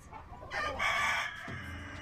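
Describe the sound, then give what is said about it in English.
A loud rooster crow rises and holds for about a second, surrounded by brief clucking from chickens, with no one speaking. “Brought in to fight off the mutant chickens, and now it's a horror free-for-all!”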